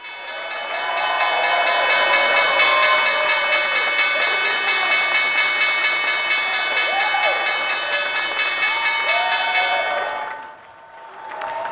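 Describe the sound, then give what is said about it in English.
The New York Stock Exchange opening bell, rung in the morning by the industrial mower maker Bad Boy Mowers, rings continuously with a bright, metallic clang while a crowd cheers, fist-pumps and shouts loudly beneath it. Both stop abruptly near the end, then the noise briefly picks up again. “fist pumps and cheers there at the New York Stock Exchange. Bad boy mowers, industrial mowers, I believe, there ringing the opening bell this morning.”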